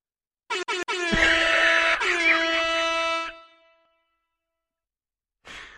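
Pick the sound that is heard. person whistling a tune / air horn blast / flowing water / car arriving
air horn blast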